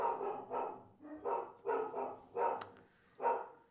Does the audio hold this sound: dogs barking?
yes